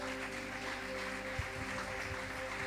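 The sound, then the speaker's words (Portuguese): A crowd claps continuously as an offering of applause to Christ, a dense, steady wash of applause lasting a few seconds, with a low electrical hum underneath and no voices standing out. “Dá-lhe uma ofrenda de aplauso a Cristo.”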